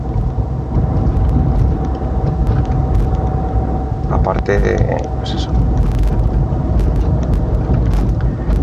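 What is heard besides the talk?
car interior driving noise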